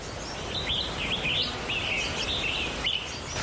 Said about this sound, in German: Später geht es durch einen dicht besiedelten Wald und ich genieße das Zwitschern der Vögel.